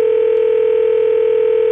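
A steady, unbroken telephone dial tone after someone hangs up, humming loudly for nearly two seconds, a flat electronic drone that cuts off abruptly at the end, with no voices.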